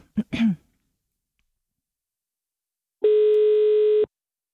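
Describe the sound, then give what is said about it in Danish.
A steady, slightly buzzy ringback tone sounds once for about a second after a brief throat clear and a short breathy noise, then cuts off into silence, as a call is placed to Vojens. “Vojens ringer vi til nu.”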